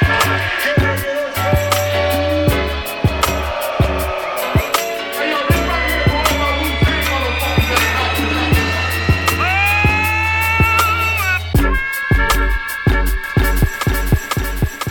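A hip-hop song plays loudly, with heavy booming bass, punchy drum hits on a steady beat, and layered samples throughout.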